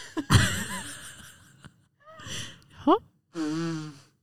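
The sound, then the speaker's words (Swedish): Someone blows their nose in a few bursts: a sharp, loud blast, then shorter snorting honks, ending in a steady, nasal trumpeting blow. “jag tänkte snyta mig.”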